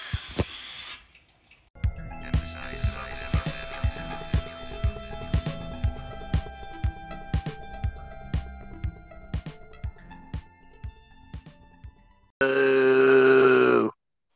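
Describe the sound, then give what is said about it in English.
A long stretch of steady rhythmic clicking and ticking gives way to a loud, buzzy fart noise made with the mouth, held for about a second and a half, alone. “just farted out of his mouth, and that's the sound that means we're doing Army of Darkness.”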